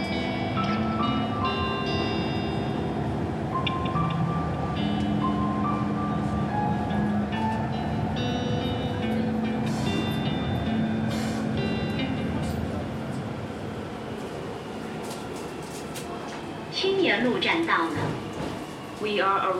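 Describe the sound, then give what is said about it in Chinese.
A subway train's steady roaring wind and rumbling track noise fill the whole stretch, heard inside an empty carriage, with humming tones layered over it and a louder rattling burst near the end. “然后旁边是地铁的呼呼的风声、轨道声，然后没有其他的声音。”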